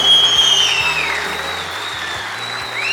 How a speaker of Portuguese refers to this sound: Você pode dar a salva de palmas para todas as mamães hoje nessa manhã.